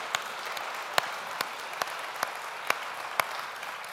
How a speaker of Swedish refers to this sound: Wow, let's clap unto the Lord again for these great students. Låt oss ge dem ytterligare en applåd.